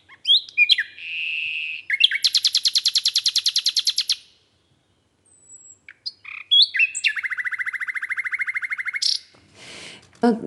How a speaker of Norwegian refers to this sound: Hvordan kan man liksom fremstille den eh, en sang som, som er liksom det flotteste, mest virtuose som kommer fra et fuglenebb?